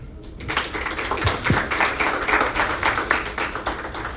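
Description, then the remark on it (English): A group of people claps steadily, a dense patter of many hands that starts abruptly after a brief quiet moment and keeps an even loudness to the end. “Okay, we clap for her?”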